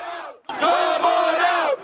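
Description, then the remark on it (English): A large crowd of New York City workers shouts together outdoors at New York's City Hall, protesting mask and vaccine mandates, a loud sustained roar of many voices rising after a brief pause, with chanting energy and no single clear speaker. “You can see the crowd behind me here, all gathered at New York's City Hall, protesting mask and vaccine mandates, mostly the city's vaccine mandate.”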